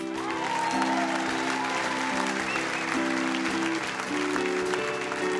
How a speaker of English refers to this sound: A uh, one more round of applause, if you will, for the amazing